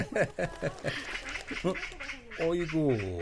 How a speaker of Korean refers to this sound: 까치가 우는 걸 보니 반가운 손님이 오려나 어?